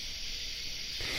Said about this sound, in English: these summer night creature sounds are made by little dude male bugs rubbing their back legs together to attract their foxy little ladybugs